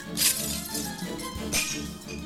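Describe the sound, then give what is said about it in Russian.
Glass vials struck with a stick shatter in two sharp, bright crashes about a second apart, each trailing into a brief tinkling scatter over a low, steady background hum. “Начала лупить по склянкам, разбивая их в дребезги.”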